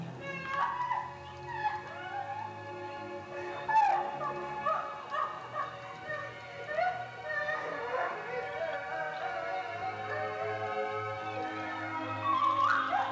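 A woman screams and cries in drawn-out, wavering wails that rise and fall in pitch, continuous for the whole stretch, with no talking over it.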